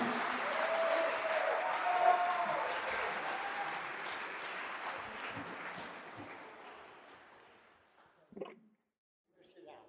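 A crowd applauds steadily for several seconds for a man about to speak, a dense wash of clapping that gradually thins and fades out, followed by a couple of brief isolated sounds near the end.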